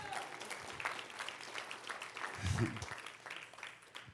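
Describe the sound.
A church audience applauds the Lord steadily during a sermon, a dense wash of many hands clapping, with a brief low thump and voices rising through the crowd midway.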